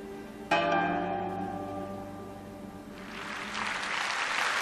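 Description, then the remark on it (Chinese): A sustained orchestral chord from the orchestral piece "Fishing Boats Singing at Dusk" rings out and slowly fades, then the audience at the closing concert of the Year of China in Russia, in the Kremlin theatre in Moscow, applauds with a dense, steady wash of clapping that grows louder toward the end. “这掌声响彻莫斯科克里姆林宫大剧院。”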